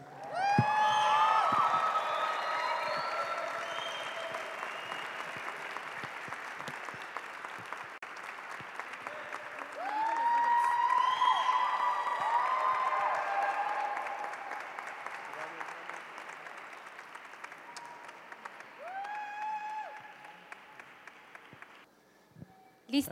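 An audience claps steadily for over twenty seconds, with scattered whoops and cheers rising above the applause, a renewed surge midway, then the clapping thins out and fades.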